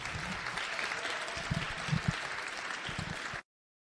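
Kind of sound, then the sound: crowd, audience applause welcoming speaker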